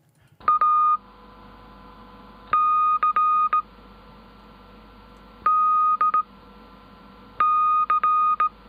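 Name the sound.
morse code beeps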